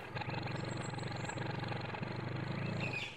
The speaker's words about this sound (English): Hey, look at that, Bundy. We got a ride. A, a tow truck. A Double Z Towing Company.